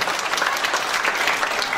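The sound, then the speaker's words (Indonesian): A church audience clapping their hands together in steady, dense applause during a sermon, fairly loud, with no pauses across the short stretch. “Yang setuju mari tepuk tangan.”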